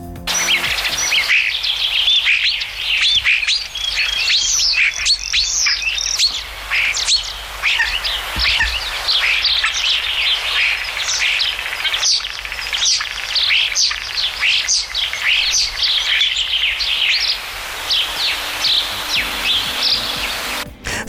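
Common starling song: a continuous, busy stream of whistles, clicks and rattling chatter, loud, running without pause for about twenty seconds with no one talking.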